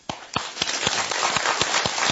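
An audience at a history lecture applauds in a dense, steady wash of clapping, with a few sharp, evenly spaced claps standing out above the rest. The clapping is moderately loud and no one speaks.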